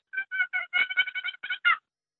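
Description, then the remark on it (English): A wooden short turkey box call purring: a quick run of about nine short, raspy, bird-like notes, clear, with no talking. “And then you have your purrs.”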